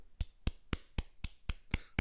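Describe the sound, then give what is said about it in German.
Eight crisp handclaps in the refined, offset opera style, evenly spaced at a brisk steady pace of about four per second, each bright and sharp with no voices. “und dann äh, gibt, gibt, es natürlich noch den, ähm, den, äh, den Opernklatscher, der geht so”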